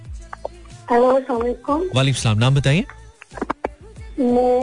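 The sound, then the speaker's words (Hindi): A female caller from Karachi speaks through a phone line with a hollow, echoing quality, the words smearing and repeating over one another as another person also speaks. “clear नहीं आ रही आवाज बहुत गूंज रही है आवाज”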